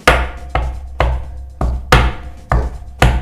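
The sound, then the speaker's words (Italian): An imitated typical Nigerian afro drum beat: about seven sharp, punchy hits in a syncopated, uneven rhythm, fairly loud, each with a deep thump and a quick decay. No talking. “cioè, semplicemente anche quella tipica nigeriana che fa”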